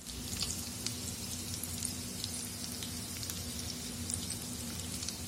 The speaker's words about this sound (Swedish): Ljudet av korvar som fräser i stekpanna har en tendens att blidka vinterns vemod